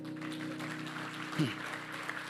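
An audience claps steadily, a soft, continuous patter of many hands over a low, constant hum, with one brief louder bump partway through.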